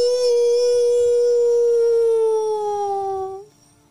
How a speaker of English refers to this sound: Birds screech as they flutter off into the uh, woods, and in response, echoing from deeper in the woods, almost in response to that howl. Howl!